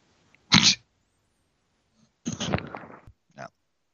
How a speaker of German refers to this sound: Ich glaube, das wäre angenehmer, wenn du weghusten würdest, als wenn du äh, so komisch dein Mikro zuhältst. Das ist nämlich sehr laut eigentlich.